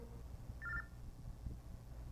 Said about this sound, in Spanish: Se me olvidó apagar el teléfono. para, que, para que vea que estamos en vivo, ¿eh? Eh, no sé quién me estará hablando, pero voy a apagar el teléfono. Apagar, ahí está.